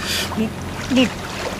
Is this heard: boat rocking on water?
yes